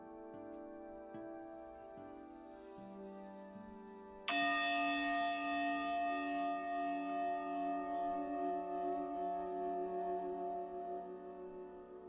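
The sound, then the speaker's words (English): A meditation bell is struck once, ringing out bright and clear over a soft sustained drone, its shimmering tone lingering for several seconds and slowly fading. “When you hear the bell, just follow my voice.”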